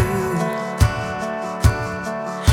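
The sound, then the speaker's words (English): A mellow, half-speed electronic chill-out track at 144 BPM, produced in about two days: sustained synth chords under heavy, evenly spaced drum hits landing slowly in a laid-back groove, with no voices. “I produced it at 144 that's the BPM but I did it as like a chill out half speed”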